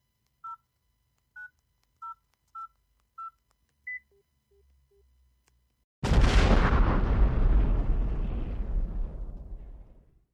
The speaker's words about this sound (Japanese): こう言って彼は、ある電話番号に電話をかけた。